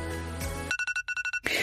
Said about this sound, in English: Oh, that's my alarm. That was really bad time. That's my alarm to take my pill, which I've done.